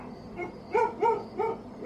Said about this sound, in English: When your dog starts acting funny, staring and growling at an empty spot of air, that's nothing to be scared of. That's, that's just something that dogs do.